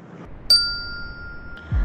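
A single bright bell strike rings out and its clear tone lingers, slowly fading over about a second, followed by a soft low thump near the end. No one speaks.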